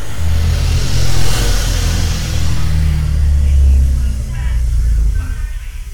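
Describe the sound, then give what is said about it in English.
A cab's engine rumbles steadily, its deep drone rising and falling as the cab accelerates and drives on slowly, loud throughout and easing off slightly at the end. “You be sure to allow for the motion of the car.”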